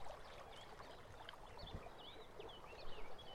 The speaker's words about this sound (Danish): Elefanten og Give lukker øjnene og lytter til det rolige vand og fuglene, der synger.